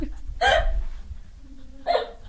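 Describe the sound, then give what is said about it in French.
Two short, abrupt vocal bursts about a second and a half apart, a voice mimicking a small fart with quick sputtering puffs, fairly loud against a quiet background. “Puis là, je sens que je vais faire un, pet.”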